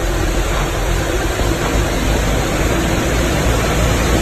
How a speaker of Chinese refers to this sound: 门都够完蛋了，内涝了。看见公交车了吗？马上就没顶了。